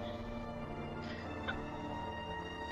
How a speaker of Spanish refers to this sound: Hay algo en el bosque, no, no sé qué es lo que pasa se escucha otra vez esa estática. Y parece que se ha perdido.